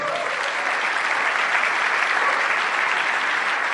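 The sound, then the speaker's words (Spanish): An audience claps steadily and loudly for several seconds, a dense, even wash of many hands with no break or rise in intensity. “para que le pida un fuerte aplauso.”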